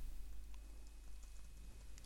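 Faint, scattered keyboard typing in the background as someone types notes, a few soft clicks tapping irregularly over a low steady hum, with no one speaking.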